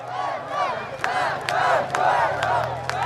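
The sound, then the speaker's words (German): A huge crowd of tens if not hundreds of thousands of demonstrators in Tbilisi, Georgia, in August 2008, protesting against Russia, roars and chants together in a dense, continuous wall of voices, with sharp whistles and shouts cutting through at a steady, loud level. “Und doch brachte sie Tod und Zerstörung und sorgte in Georgien für eine der größten Demonstrationen, die das Land je erlebte.”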